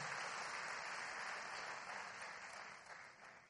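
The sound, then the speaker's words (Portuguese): A church audience claps steadily in a dense, continuous wash of applause, fairly loud, applauding the Lord for the boys from the Casa Cap football program. It tapers off slightly toward the end with no voices over it. “Vamos aplaudir o Senhor por essas vidas, irmãos.”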